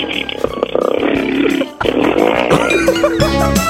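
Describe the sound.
A second-year high school girl mimics a motorcycle engine with her voice on Park Myung-soo's Radio Show, producing a loud, continuous buzzing rev that briefly cuts out partway through before roaring back up and holding steady.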